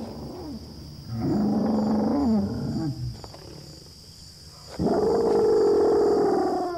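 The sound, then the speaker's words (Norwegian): Big Al, a male Allosaurus, gives his first low mating call after scenting dung left by a female: two long, loud, rumbling bellows with a harmonic, droning tone. A quieter pause separates them, and the second call is sustained and slightly higher-pitched. “Dung left by a female Allosaurus has an immediate effect on Al, and for the first time in his life, he issues a mating call.”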